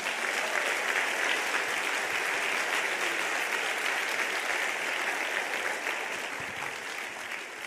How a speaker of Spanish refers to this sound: Denle un aplauso a Jesús, no a un rosario.